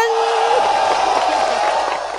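A loud, continuous burst of group applause and cheering, opening with a high drawn-out whoop and filled with scattered shouts over steady clapping.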